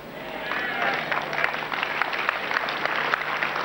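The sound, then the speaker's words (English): An audience claps steadily for a few seconds, a dense, even wash of many hands with sharper individual claps popping out of the crackling texture. “So because the way you are clapping, you are expecting me to say, it's out.”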